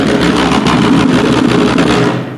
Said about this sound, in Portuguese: Isto é um rolamento, portanto, é uma pancada de cada vez, alternadamente com uma mão e com a outra.